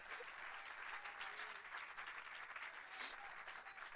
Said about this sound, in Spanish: Dale un aplauso al Señor, hermano.